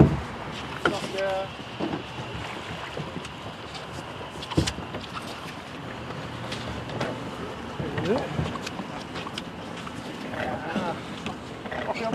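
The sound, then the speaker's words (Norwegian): A sailing boat moves through the water in a light breeze, with steady wash and sloshing, occasional hull knocks and creaks, and voices talking. “Vi har et lite sig i båten. Det er et lite pust i vinden her også. Det blir seiling, dette her.”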